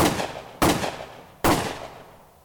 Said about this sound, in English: the sound of three gunshots, and the world went dark.